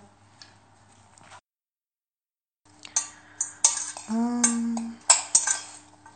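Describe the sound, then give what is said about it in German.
Stainless steel pots and utensils clatter and clink during cooking, a burst of sharp metallic knocks with a brief ringing scrape, after a quiet start and a short silence. “Hier kocht sich's in, in können man hört's am Klappern, ne? In, in Edelstahl und so.”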